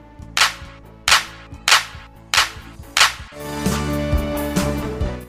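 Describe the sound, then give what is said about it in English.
Five sharp hand claps land at a steady, even pace over light background music, which then swells and carries on alone after the final clap. “You are amazing today. Give yourself five claps.”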